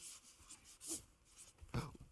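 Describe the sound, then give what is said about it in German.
Soft scratching strokes of a pen moving across paper, a few short scrapes in an otherwise quiet moment, with two slightly louder strokes standing out. “Immer ein besseren Stift.”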